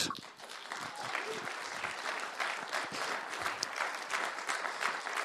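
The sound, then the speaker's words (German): Steady audience applause welcoming Christina Wüthrich onto the stage for an interview, a dense wash of many hands clapping at an even, fairly loud level throughout, with no voices standing out. “Geben wir doch einen grossen Applaus auf der Bühne für Christina Wüthrich.”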